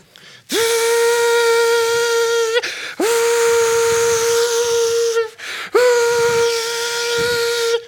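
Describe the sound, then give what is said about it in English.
A voice mimics a hair dryer blowing with three loud, sustained whistling tones at a steady pitch, each about two seconds long and backed by breathy hiss, separated by short breaks. “So I got a hair dryer, and I plug it in.”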